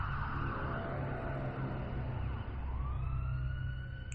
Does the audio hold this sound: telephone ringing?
no